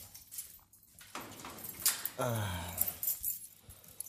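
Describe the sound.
Keys on a keyring jingle in bright, uneven metallic rattles for several seconds, with a short murmured voice sound partway through.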